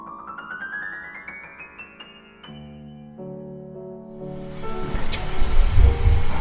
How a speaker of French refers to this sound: Là, tu le fais à fond. On entend hein, le bruit du feu, la chaleur.